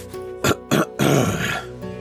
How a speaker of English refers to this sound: You hear him kind of clear his throat